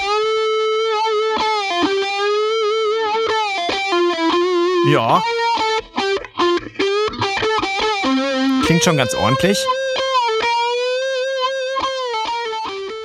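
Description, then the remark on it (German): Heavily distorted electric guitar, a software-imitated Red Special guitar sound with distortion switched on, plays a loud melodic line of sustained, singing notes with expressive bends and a quick slide near the middle; a voice briefly speaks over it. “Und jetzt mal mit Distortion dazu geschaltet.”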